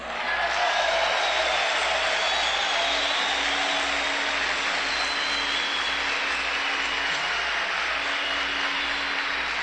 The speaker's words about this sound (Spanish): Le dije, señora, usted, por favor, un aplauso aquí para las amas de casa.